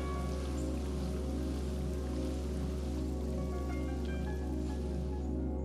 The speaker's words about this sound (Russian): Капли воды плавно стекают по лепесткам и листьям. Кап, кап, кап.